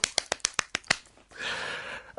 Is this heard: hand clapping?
yes